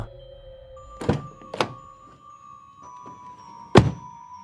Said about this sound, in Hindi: और जैसे ही दरवाज़ा बंद हुआ